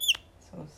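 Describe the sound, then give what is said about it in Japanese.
A wooden bird call with a screw fitted in it, rubbed together to make a small bird's voice, gives one quick, shrill chirp that slides downward, bright, followed after a short pause by a soft, lower murmuring sound. “小鳥の声が出るそ木のなんかこうネジが入ってるやつみたいなのをこうやってすり合わせるとこういう音が出るっていう”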